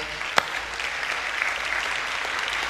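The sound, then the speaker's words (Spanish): Steady audience applause for the fathers this morning, a dense wash of many hands clapping at an even level throughout, with one sharper clap standing out early on and no voices heard. “Si usted no es papá, dele un aplauso a los papás esta mañana, por favor.”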